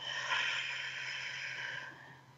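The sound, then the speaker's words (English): A slow, steady breath blown out through the mouth as if through a straw during a relaxation breathing exercise, a soft airy hiss lasting about two seconds that gradually fades, with no talking. “And as you're doing that and you're connecting in, let's take a deep breath in through your nose, out through your mouth like through a straw.”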